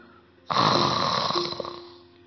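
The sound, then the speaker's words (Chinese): A voice imitates a sleeping mouse's snore: one long, loud, breathy rasp that starts abruptly and slowly fades away, with no other sound around it. “小老鼠也睡觉了。呼嘘，呼嘘”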